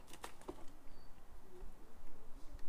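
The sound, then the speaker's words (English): A few quiet scrabbling taps and soft patters from above as birds land and shuffle just overhead, muffled and brief against a low, steady background. “Birds sort of landed just above us.”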